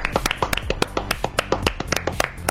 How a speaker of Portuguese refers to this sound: Então para você, ó, nossa salva de palmas.